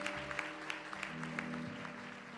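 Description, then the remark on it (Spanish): A standing audience applauds Jesus at a church service, a dense wash of claps with sharper individual hits, over sustained keyboard chords playing underneath. No one speaks. “Vamos a ponernos de pie, dale fuerte ese aplauso a Jesús.”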